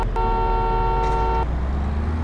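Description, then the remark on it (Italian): A single steady car horn blast, held for just over a second, sounds over a continuous low engine rumble at the start of a race set in France in a racing video game, then cuts off while the motor drones on. “Sentite il clacson diverso.”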